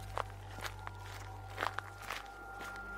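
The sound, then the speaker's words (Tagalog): Footsteps of people walking through a dense forest, a handful of soft, uneven crunching steps at a relaxed pace, over a low steady background hum with no voices. “Kaya naman, naisip naming maglakad-lakad muna at baka makahanap ng paraan para makabalik kina Lolo.”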